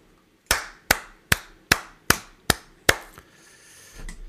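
Seven sharp, slow claps land in a steady rhythm about every 0.4 seconds, each a crisp slap with a short ringing tail, applauding Meuthen's exit from the AfD party. Afterward only a faint shuffle remains, with no talking.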